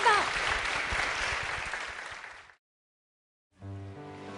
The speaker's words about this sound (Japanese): 皆さん大きな拍手をお願いいたします